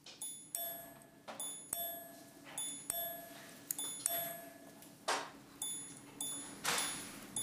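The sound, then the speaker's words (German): A minute repeater watch, set off by a push button, chimes the time in small, bright gong strikes: a low tone for each hour, a double tone for each ten minutes and a high tone for each minute, some single and some in quick pairs, each ringing briefly. The chimes are soft, with no talking. “Mit einem tiefen Ton für jede Stunde, einem Doppelton für jeweils zehn Minuten und einem hohen Ton für jede vollendete Minute.”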